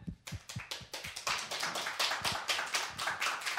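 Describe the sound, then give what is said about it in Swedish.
Audience applause: a few scattered claps at first, quickly swelling into steady, dense clapping from many hands that carries on at a fairly even level, with no voices. “Tack för applåderna.”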